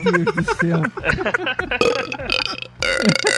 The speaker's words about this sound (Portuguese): É que eu tava aqui, eu tava engolindo ar aqui o tempo todo, até vocês me chamarem pra ver se saiu um arroto maior.